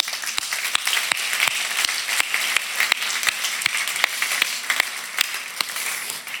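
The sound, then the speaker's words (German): A church audience applauds steadily, a dense wash of many hands clapping with sharper individual claps standing out at a fairly regular pace, sustained at an even, lively level with no talking. “Wir sind eine Kirche an mehreren Standorten und ich würde sagen, wir geben der ganzen Familie nochmal einen fetten Applaus.”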